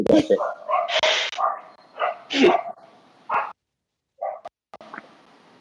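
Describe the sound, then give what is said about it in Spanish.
A dog barks and yips several times in short, uneven bursts, loud, with a brief pause before a couple more softer yaps near the end. “Hasta aquí su perro bonito”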